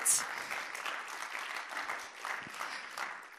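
An audience claps steadily for a few seconds in the morning as a woman comes onto the stage to share a Bible verse, a dense, even patter of many hands with no voices rising above it.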